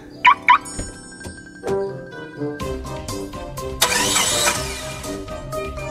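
A car engine cranks and turns over, then settles into a steady idling rumble, preceded by two quick, bright electronic chirps. Nobody speaks.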